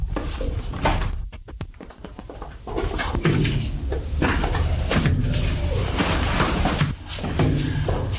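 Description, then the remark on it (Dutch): A front door is opened after the doorbell rings, with a quick burst of latch clicks followed by a drawn-out creaking swing, over a steady background of outdoor ambience with cooing birds. “Ik ga even open doen.”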